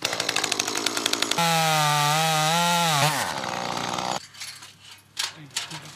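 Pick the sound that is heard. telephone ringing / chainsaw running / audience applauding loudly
chainsaw running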